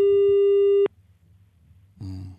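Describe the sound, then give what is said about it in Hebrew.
A steady electronic telephone tone holds for under a second, then cuts off into quiet line noise before a muffled voice-like sound starts near the end; an unanswered call, with no voicemail, to Ayman Odeh, head of the Joint List. “איימן עודה לא עונה.”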